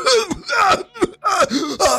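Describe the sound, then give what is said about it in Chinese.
An old man's violent coughing in a small shop: four or five harsh, throaty bursts in quick succession, rasping and strained with a wheezy, groaning edge, loud and alone without other talk. “老人怪异的要求和剧烈的咳嗽声让小刚突然心生胆寒。”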